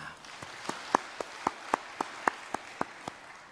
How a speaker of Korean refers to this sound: 새날을 허락하신 하나님께 우리 감사의 박수를 올려드리겠습니다.